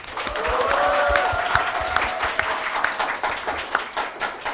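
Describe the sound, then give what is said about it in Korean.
An audience applauds steadily for several seconds, a dense, even patter of many hands clapping, with a faint sustained tone audible near the start before the clapping thins slightly toward the end, opening the Kookmin TV current-affairs talk show Manmaiseu. “국민TV 시사 토크 만마이스 여러분의 힘찬 박수와 함께 시작하겠습니다.”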